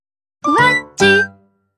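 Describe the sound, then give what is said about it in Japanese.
A bright two-note chime rings out clearly and alone, each tone ringing briefly with a short gap between, a TBS Radio 90.5MHz time signal marking one o'clock. “ふわっちが一時をお知らせします”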